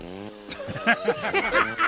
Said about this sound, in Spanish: La lambreta, ¿no? Venía derrota y ahí está llegando.